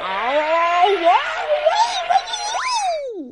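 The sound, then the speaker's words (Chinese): A human voice imitates a big wolf roaring and shouting as it lunges toward a hole: one loud, sustained growling cry with wavering pitch that swoops up sharply near the end, then slides down and fades. “大野狼站了起来，挺挺身子，他深深的吸了一口气，然后大吼大叫的向洞扑去。”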